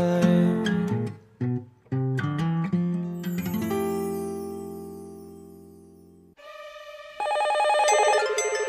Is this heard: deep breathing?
no